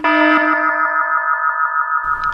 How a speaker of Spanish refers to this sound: Y empezamos ahora la sección de spoilers, como habéis oído la alarma.